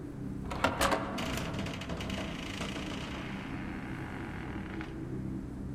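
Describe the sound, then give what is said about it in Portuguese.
A door being unlocked and opened: a quick burst of metallic clicks and rattling from the lock and handle, then a steady low rumble that carries on to the end. “Ah, eu vou arriscar, vamos ver se essa porta tá trancada.”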